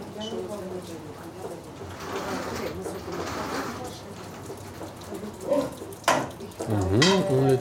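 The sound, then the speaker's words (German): A frying pan is set down for cooking with a single short clunk against a steady hiss of kitchen background noise, while people talk before and after. “kommt die Pfanne. Jetzt wird spannend. Pfanne.”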